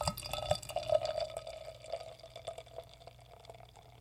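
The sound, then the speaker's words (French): A drink pours into a glass with a gurgling, bubbly splash that is strongest in the first two seconds, then thins to a soft trickle and fizz. No one speaks. “Bon, je vais la verser.”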